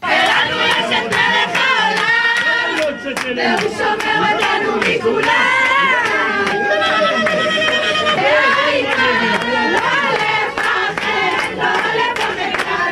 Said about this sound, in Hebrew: בשעות הערב, כאשר פורסם על שחרורה, אנשים רבים הגיעו סמוך לביתה בקריית גת. בני משפחה, חברים, שכנים וגם מאות תושבים שהגיעו כדי לחגוג את שחרורה.